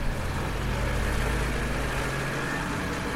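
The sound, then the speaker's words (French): A steady rumble of street traffic on the Boulevard Blossac in Châtellerault, with engines humming low and continuous and no clear individual pass-bys, with no voices. “Donc sur le boulevard Blossac euh, de Châtellerault, bah, il y a quand même de l'activité, hein, des passants, des voitures”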